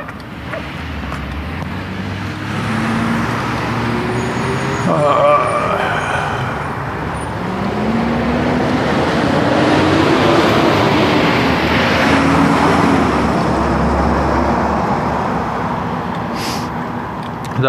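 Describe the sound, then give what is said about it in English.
A school bus drives past in September, with school back in session; its heavy engine rumble and road roar swell and hold steady for several seconds before easing off. “was the school bus because school is back in session.”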